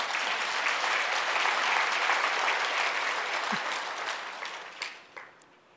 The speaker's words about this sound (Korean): 오늘 찬양대 너무 잘했어요. 우리 한번 영광의 박수 한번 드리겠습니다.